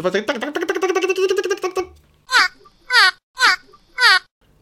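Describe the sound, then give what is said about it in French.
A human voice imitates a dolphin's call: a wavering, nasal vocal trill, then four high, squeaky chirps in a steady rhythm, loud. “On a un petit son de dauphin.”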